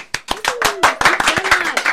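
round of applause

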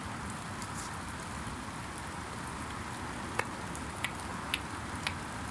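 rain falling

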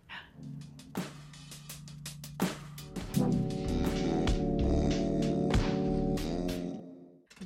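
door opening or closing

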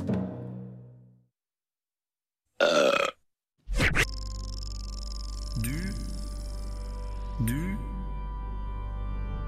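burping

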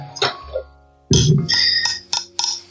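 beer bottles clinking together

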